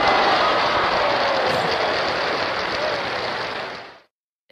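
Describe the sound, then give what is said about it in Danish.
A dense, rapid patter of slaps, tails being slapped around over the ice, runs loud and steady for about four seconds before stopping abruptly. No voices are heard. “Altså, den her spættelignende, nærmest sådan tæppebankeragtige lyd, øh, det, det er faktisk kusten, der bliver, der bliver sådan sjasket rundt, eller næsten slået rundt øh, over isen.”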